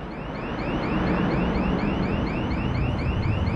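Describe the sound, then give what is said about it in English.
A loud car alarm blares continuously, cycling through rapid, repeating electronic whoops in a steady rhythm over a dense background rumble, with no voices present. “How can you hear anything over that alarm?”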